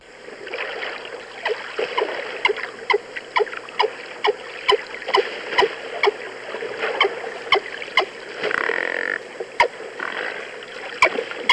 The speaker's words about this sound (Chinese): 展场里面的海豚，它可能没有唱那么，它另外一种美声啦哈。Oh. 我们来听听看展场的海豚怎么叫。